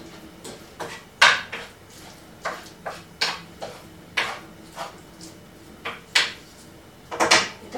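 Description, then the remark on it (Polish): A wooden spoon stirs and spreads food across a frying pan over a flame, scraping and knocking in an uneven rhythm, roughly a dozen short scuffs and taps with quiet pauses between them and no talking. “I mieszam drewnianą łyżką lub łopatką.”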